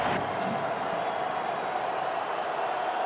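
A large stadium crowd at a football game roars steadily for about three seconds after Rhamondre Stevenson scores the go-ahead touchdown, a dense, unbroken wash of cheering and noise at a constant loud level with no individual voices standing out.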